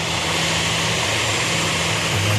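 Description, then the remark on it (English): A propeller plane carrying a person's remains arrives at the airport, its engines droning loudly and steadily, a low humming tone that shifts slightly in pitch near the end, with no voices. “plane carrying his remains arrived at the airport today.”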